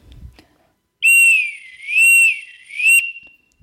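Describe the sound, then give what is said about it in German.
A loud whistle held for about two seconds, its pitch rising and falling in slow, smooth waves, three swells in a row with no talking over it; a wave-like whistle signal being demonstrated. “Dann gibt es noch den wellenartigen Pfiff.”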